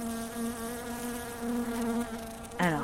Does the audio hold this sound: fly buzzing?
yes